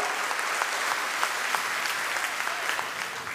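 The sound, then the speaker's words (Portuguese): An audience applauds steadily, a dense wash of many hands clapping at an even level for a few seconds, with a few sharper individual claps standing out and no talking. “Dá uma salva de palmas aí.”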